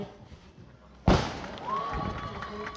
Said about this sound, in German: Böllerschuss und ab geht's. Massenstart von der Talstation.